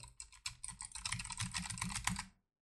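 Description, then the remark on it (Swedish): Rapid, clicky keystrokes from a Logitech low-profile mechanical wireless keyboard with a metal surface, typed in a fast continuous burst for about two seconds, fairly crisp, with no voices. “Det är det första mekaniska trådlösa tangentbordet från Logitech.”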